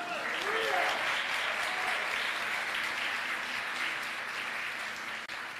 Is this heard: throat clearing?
no